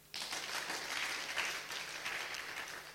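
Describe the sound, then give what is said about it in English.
A crowd breaks into sustained applause for the worship team, many hands clapping at once in a dense, steady wash of sound that holds for several seconds without talking over it. “Give them a clap again.”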